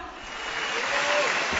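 Steady audience applause at an errenzhuan (Northeast Chinese comic song-and-dance duet) performance, a dense wash of many hands clapping that swells slightly louder toward the end, with no clear voices over it.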